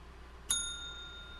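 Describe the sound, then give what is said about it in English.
A single bright bell ding, hit to mark the start of a spoiler section, strikes once and rings on with a clear, sustained metallic tone that slowly fades, heard alone over a quiet background. “Um, yeah, let's hit the bell so we can talk about uh, spoilers.”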